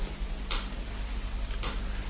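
Two slow, evenly spaced ticks of an inlaid walnut-wood pendulum clock, about a second apart, crisp, over a steady low hum in a quiet salon with old prints and rugs, with no one speaking.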